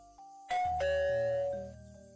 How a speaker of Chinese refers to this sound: 但是，十几分钟以后。刺耳的门铃响了起来